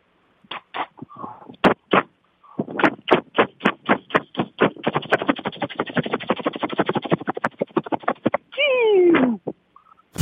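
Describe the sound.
A voice mimics a helicopter starting up and climbing to 3,000 feet: a few slow, separate pulses quicken into a steady rapid chopping, ending in a brief falling whine. It is fairly loud, with no talking.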